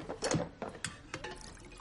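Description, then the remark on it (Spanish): Water is poured into a canteen, splashing and trickling with a few short bursts of pouring and gurgling, moderately loud, no voices. “Ella echa agua en una cantimplora.”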